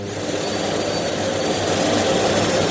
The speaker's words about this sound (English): it's about to get a bit noisy as I turn the vacuum cleaner on